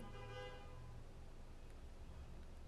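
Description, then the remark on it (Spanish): A car horn honks outside in one steady, faint blast lasting about a second, then fades into quiet background noise with no one speaking. “No sé qué carro anda pitando.”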